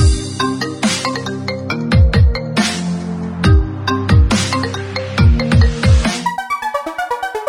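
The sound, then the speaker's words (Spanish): A jingle for the program section "El teléfono", with punchy drums and bright synth notes, ending in a quick repeating electronic ringtone melody that trills on its own for the final seconds. No voices. “El teléfono con Lini Carlos, tu matrimonio amigo.”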